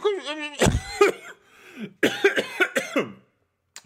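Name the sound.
coughing fit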